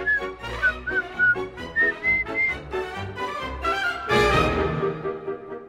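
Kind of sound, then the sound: sound effect, cheerful whistling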